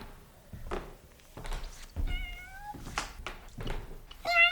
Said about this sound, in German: Hey, da ist ja eine der Katzen. Na, du Kleine?